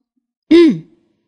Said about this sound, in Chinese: 中午的时候，全校老师来到校长办公室。皮皮鲁学着校长的样子，先咳嗽了一声，然后说：